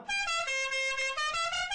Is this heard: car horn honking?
yes